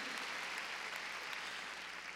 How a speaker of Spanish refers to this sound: a ver, démosle palmas fuertes al Señor.